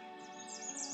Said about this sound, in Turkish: Kuş cıvıltılarını dinleyin.